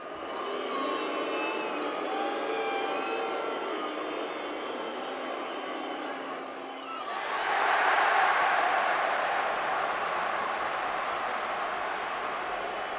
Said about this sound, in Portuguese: Primeiro pênalti batido, o Degard com muita categoria. Eu tô do lado da torcida do City, né? Então dá para ouvir mais a torcida do City vaiando e depois, quando sai o gol, a torcida do Arsenal comemorando.